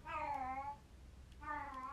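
Two drawn-out, wailing yowls from Lily, a pet cat in heat, each with a rising-then-falling moan and a short pause between them. The calls are fairly loud, with no talking.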